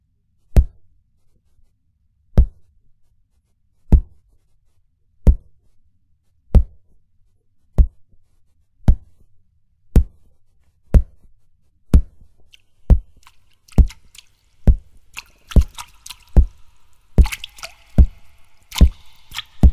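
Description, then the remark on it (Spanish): Instruments made of vegetables, played by the Vienna Vegetable Orchestra, being struck: sharp, wet-sounding percussive knocks, evenly spaced at first, then quickening, with scratchy noisy textures joining toward the end. No one speaks. “Por si creían que los vegetales son aburridos, pues bueno, estamos escuchando a la Orquesta de Vegetales de Viena.”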